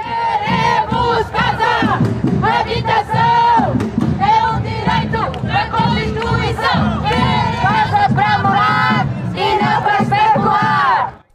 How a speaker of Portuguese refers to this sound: Este sábado, ouvimos pelas ruas de todo o país gritos como.